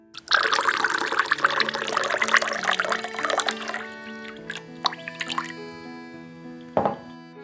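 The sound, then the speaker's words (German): Ice-cold water from an absinthe fountain trickles and drips steadily into a glass of absinthe served with a spoon of sugar, a dense splashing stream at first that thins into scattered drips with ringing tones, with no one speaking. “Serviert, stilvollendet mit Löffel Zucker und eisgekühltem Wasser aus der Fontäne.”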